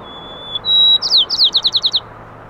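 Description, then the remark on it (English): Clear song of two male sparrows counter-singing: a long thin whistle, then a brighter whistled note and a quick run of about eight descending chirps, over a low steady hum of reduced traffic noise with no voices. “You can hear this communication happening, the counter singing between two males.”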